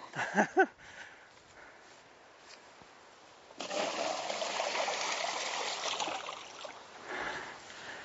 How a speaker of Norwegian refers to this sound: nå kan jeg i hvert fall ta vann herifra og fylle i badekaret deres. Så da Ti liter om gangen.